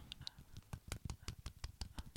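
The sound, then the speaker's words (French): A short burst of light, quick hand clapping as a mini round of applause thanking a first guest, a dozen or so soft claps in an uneven patter, fairly quiet, with no voices over it. “Est-ce qu'on peut faire un mini applaudissement”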